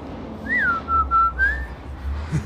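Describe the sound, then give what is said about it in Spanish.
A father whistles a short calling tune to his daughters: a quick rising-and-falling note, two steady held tones, then a higher sliding note, clear over a low background rumble. “Mi papá siempre nos chiflaba desde chiquitas así.”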